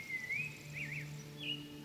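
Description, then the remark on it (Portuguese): A sabiá thrush in an araucaria forest sings clear, flute-like whistled phrases that slide up and down, fairly soft, over a steady low hum with no voices. “O canto vibrante do sabiá faz lembrar o som de uma flauta.”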